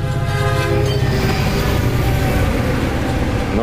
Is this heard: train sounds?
yes